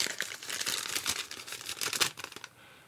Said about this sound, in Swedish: Veckla ut en lapp här.